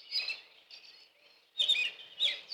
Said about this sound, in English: Now then, come back to what you hear. And for me, it's the ceiling fan mm. or the beat of my heart mm-hmm. or the birds outside.